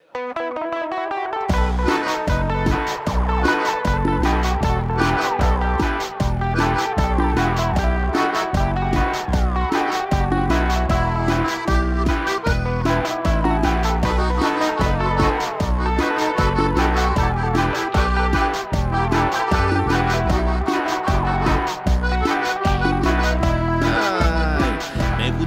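A full band recording plays loudly and steadily, with a driving beat, bass, and bright layered instruments filling the whole track without a pause.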